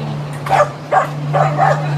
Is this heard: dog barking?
yes